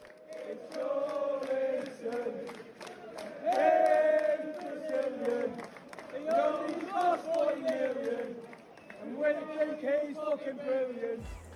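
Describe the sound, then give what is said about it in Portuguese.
A large crowd of football fans in a stadium sings a chant in unison for Brazilian player Joelinton, loud and sustained, with melodic phrases that swell and dip in repeating waves for the whole stretch, with no separate talking voice on top. “É, mas enfim, mas é legal ver a torcida cantando uma música para ele, cara.”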